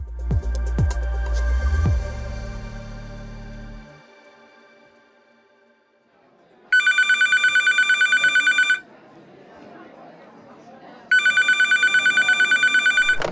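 A telephone rings twice, each ring a loud, rapidly trilling electronic burst lasting about two seconds, separated by a quiet pause, after a brief musical intro fades out.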